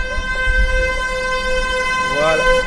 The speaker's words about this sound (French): alors lui, en fait, il, donc, klaxonne sur les prostituées qui sont en face de nous. Elles sont quatre de l'autre côté de la rue.